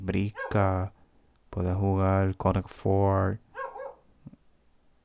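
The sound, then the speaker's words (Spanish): A dog barks in short bursts while a person talks over it, with a faint steady high-pitched hum running throughout. “Perdón por el perro que está ladrando.”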